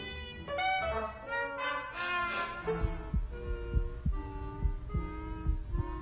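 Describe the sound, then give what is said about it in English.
The heartbeat of an astronaut candidate, listened to during a medical examination at the Lovelace Clinic, thumps steadily and low in the second half, in regular paired beats, beneath a sustained electronic musical tone that plays throughout. No one speaks. “We are listening to his heart.”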